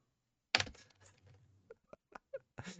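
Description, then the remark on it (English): Soft typing on a quiet computer keyboard: a louder clack at first, then a handful of muted, irregular key taps with no one talking. “The keys are really quiet.”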